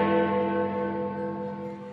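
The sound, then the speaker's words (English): A single deep clock tower bell chime rings out with rich, sustained harmonic overtones, slowly decaying over two seconds with no voices present. “And do you know what I love, mate? Go on, mate. Big Ben Kenobi's chimes.”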